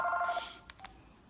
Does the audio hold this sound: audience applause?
no